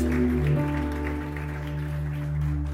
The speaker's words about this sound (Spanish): Amén. Dar un aplauso fuerte a Jesús.